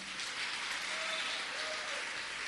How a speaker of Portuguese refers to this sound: Vamos aplaudi-lo.